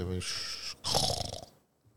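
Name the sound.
voice imitating snoring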